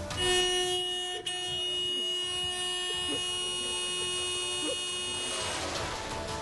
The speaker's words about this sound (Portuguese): É esse cachorrinho que protesta porque deixaram ele preso no carro. Sabe como é que ele protestou? Usando a buzina.